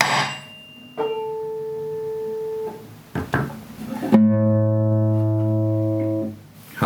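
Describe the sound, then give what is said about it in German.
A steady reference tone from a table sounds, then a brief plucked guitar string, followed by a louder, sustained pitched note that sits slightly off from the first, the guitar being slightly out of tune. The two tones compete in pitch and timbre, with no talking. “Und wenn ich jetzt meine Gitarre nehme, die jetzt ganz bestimmt ein bisschen verstimmt ist, aus Versehen, und ich wollte den vergleichen”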